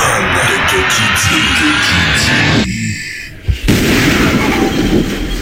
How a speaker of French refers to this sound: Ça, c'est-tu le bruit de ton chauffe-eau qu'on parlait un matin, ça, qui vient d'exploser?